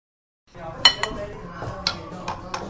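Dishes and cutlery clink in a busy pho breakfast shop in Bạch Hạc ward, Việt Trì city, Phú Thọ province, Vietnam, with several sharp bright clatters standing out over a steady low murmur of background chatter.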